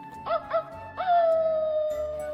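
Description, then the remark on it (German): A wolf howls: two short rising yelps, then one long sustained howl that slowly drops in pitch and fades, with no voices around it. “Ich bin der Wolf, der Frieden sucht in dieser dunklen Nacht.”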